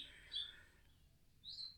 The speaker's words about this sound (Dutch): vogeltjes.